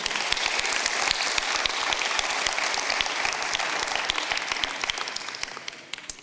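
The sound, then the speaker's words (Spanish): An audience at Calvary, 1600 Harvey Drive, applauds for those listening on the radio, a dense wash of many hands clapping at a constant loudness for several seconds before it starts thinning out near the end. “Un aplauso fuerte a los que nos escuchan por la radio.”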